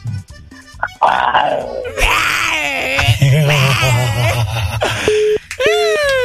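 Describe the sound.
A person imitates a tiger's growl with loud, strained vocal roars and groans, sustained over several seconds with rising and falling pitch.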